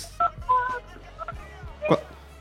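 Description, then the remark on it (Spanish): A child presses a few phone keypad buttons, making short beeps at an irregular, unhurried pace, clear, with faint background noise and soft vocal sounds between them. “No, no juegue con, no juegue con el teléfono.”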